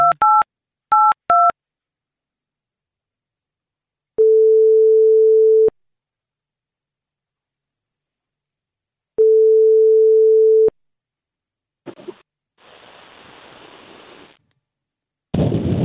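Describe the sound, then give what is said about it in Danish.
A few quick keypad tones are dialed, then two long, steady ringback tones sound with a long pause between them, followed by a crackle of line noise as the call connects. “Vi ringer mhm. til ham.”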